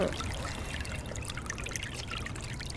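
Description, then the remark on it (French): Water trickles steadily through the Cloaca Maxima, the ancient fully underground Roman sewer in Rome: a continuous soft burble with scattered bright droplet splashes over a low rumbling undertone, fairly quiet and with no voices. “Et euh, au, départ, ce n'était qu'une tranchée à ciel ouvert, mais au fur et à mesure euh, des siècles, il est devenu un, égout totalement souterrain.”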